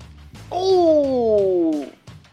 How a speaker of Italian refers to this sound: Ecco, penso che gli amici a casa possono aver intuito... Abbiamo sentito un urlo terribile.